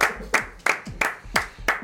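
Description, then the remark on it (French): Six sharp hand claps in a steady, even rhythm, about three per second, each a crisp slap fading quickly, with no voices. “Bravo, j'ai envie d'applaudir.”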